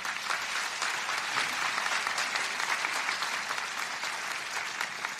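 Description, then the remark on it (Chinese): Steady, sustained applause from a crowd giving God a round of applause during a church sermon fills the whole stretch, a dense wash of many hands clapping at an even level with no voices standing out. “给上帝一个掌声。”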